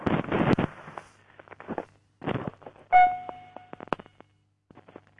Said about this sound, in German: Ja, warte, ich mach gerade die Tür auf.